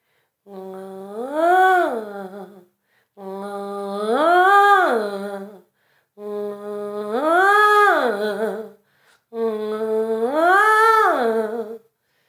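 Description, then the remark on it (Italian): Four smooth vocal siren glides on a relaxed, soft, light 'nga' sound as a voice exercise, a single voice sliding its pitch up to a peak and back down each time, separated by short pauses, sung gently with no speech. “Nga, nga, una volta che hai individuato appunto il suono, dovrai fare delle semplici piccole sirene, un po' come questa.”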